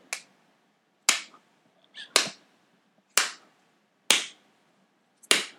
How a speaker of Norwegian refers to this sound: Så du hørte i bakgrunnen det var kasting av boks, og slår i boksen.